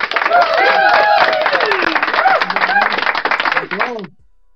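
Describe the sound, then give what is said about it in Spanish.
A loud, dense burst of applause, many hands clapping quickly, mixed with whooping, cheering voices. It lasts about four seconds, then cuts off abruptly. “Wow, otro aplauso, otro aplauso, se lo merece.”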